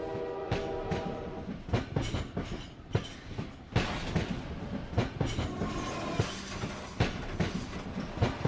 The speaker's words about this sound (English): Selma's imagination turns the mundane sounds of the train tracks into a Hollywood musical number